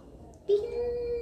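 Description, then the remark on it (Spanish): A single voice softly imitates a small bell ringing, holding one steady, ringing tone that starts abruptly after a brief pause and lasts under a second, fairly clear. “Es que yo tengo mi campanita que suena, ya les dijo bajo, ¿cómo suena bajo?”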